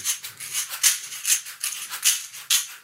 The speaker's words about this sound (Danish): jeg bare en cassisi med, som er en brasiliansk rasle. Og, som ud, udvidet æg? Ja, og, og det lyder sådan her, men det har også sådan en lidt hård lyd.